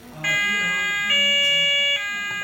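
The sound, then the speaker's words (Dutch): An electronic chime-like jingle of steady, bright tones, stepping from one held pitch to another and back, loud and without speech: an assistance-call jingle that plays when a button is pressed. “Dus, eh, ja, dus de, de assistentie jingle.”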